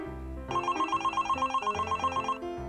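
An office telephone rings with a rapid, trilling electronic bell, a steady burst of repeated pulses lasting about two seconds before cutting off, clear with no talking.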